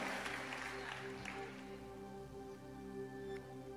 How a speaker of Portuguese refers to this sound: Dá-lhe um aplauso ao nosso Deus de glória. Aleluia. Aleluia.